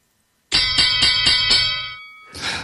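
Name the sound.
bell ringing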